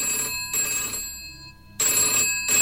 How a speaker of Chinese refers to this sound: 电话又响了，今晚可真忙呀！女警员感叹一声，清了清嗓子，又接起了电话。